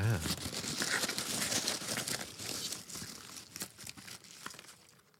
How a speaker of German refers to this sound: Ich habe ein Zettelchen in der Hand. Ich muss ihn noch aufpulen. Es geht mal wieder nicht. Weil ich versuche nicht hinzugucken und dann ohne hingucken so einen Knüll aufzuknüllen ist nicht so leicht. Okay, er ist offen.